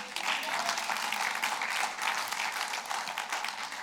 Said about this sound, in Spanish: Vamos a ponernos de pies esta tarde. Un aplauso al Señor. Amén.